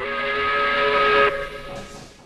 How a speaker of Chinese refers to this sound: 于是，他将两只大拖鞋扔进箱子里，咕咚咕咚响了两声，接着传来了火车的汽笛声。